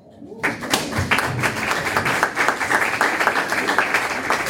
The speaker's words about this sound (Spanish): Aplauso.